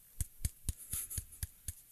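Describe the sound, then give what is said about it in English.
A short burst of applause from what sounds like a single pair of hands: about seven crisp, evenly spaced claps in a steady rhythm, with no voices and no crowd. “Okay, here. Applause.”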